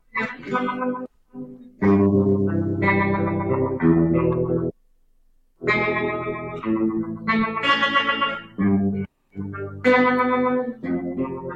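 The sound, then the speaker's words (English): An electric guitar played through effects, with thick distorted, chorused chords ringing out in bursts separated by short pauses, loud and alone without any talking. “There's your guitar.”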